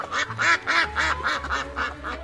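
Five little ducklings quack with laughter while learning to skate on ice, a quick, steady run of about eight harsh, nasal calls, loud and overlapping slightly, with no talking over them.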